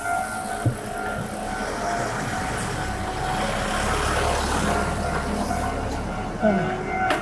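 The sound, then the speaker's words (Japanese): A car drives by on a narrow street, its engine and tire noise forming a steady, moderately loud rumble that swells slightly midway, with a couple of brief knocks and no voices. “なんかここら辺の車結構強気っすね。”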